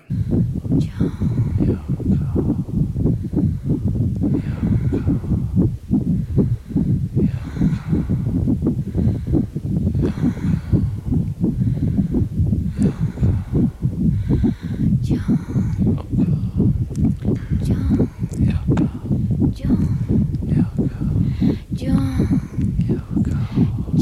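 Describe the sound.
The steady, deep heartbeats of a couple thump continuously underneath, forming a low rhythmic bass throughout, while voices speak intermittently over the pulsing.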